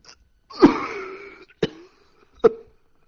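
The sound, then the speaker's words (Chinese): A man's violent coughing fit: one long, harsh, rasping cough followed by two shorter, sharp barks, loud and unaccompanied by speech. “一阵猛烈的咳嗽打断了他的思索。”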